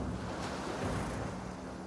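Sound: ocean waves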